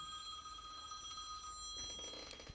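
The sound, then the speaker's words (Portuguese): An old-fashioned telephone bell rings continuously with a bright metallic trill, fairly clear, with a brief clatter near the end. “O telefone dela é daqueles antigos ainda.”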